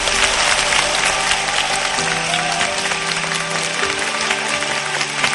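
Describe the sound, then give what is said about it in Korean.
Sustained audience applause thanking Professor Lee Ik-joo after his long lecture, a dense, steady wash of many hands clapping at even loudness throughout, with a soft musical tone underneath and no talking. “네, 오늘 긴 시간 명 강연 펼쳐주신 우리 이익주 교수님께 다시 한번 감사의 박수 부탁드립니다.”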